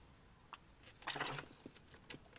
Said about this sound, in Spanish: Disculpadme, estoy bebiendo algo de agua eh, mientras hablo.